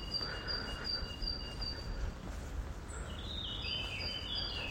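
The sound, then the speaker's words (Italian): Small birds chirp and sing, thin high tones over a steady outdoor hiss, with a brighter twittering burst toward the end. No voices are heard. “Ecco, ad esempio, io adesso vi dico, sentite questi uccellini.”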